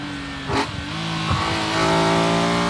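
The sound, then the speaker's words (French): The engine of an original 1972 Neue Klasse car revs and accelerates, with a steady harmonic drone that climbs in pitch and grows louder, punctuated by a couple of brief mechanical clunks, with no voices. “Le son d'une Neue classe originale datant de 1972.”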